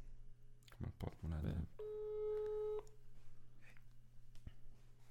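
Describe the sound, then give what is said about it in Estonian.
A telephone ringing tone from an outgoing phone call sounds once, a steady mid-pitched buzzing tone lasting about a second, right after a brief burst of voices, over a low constant hum. “kust see helistamise mõte sul tuli praegu”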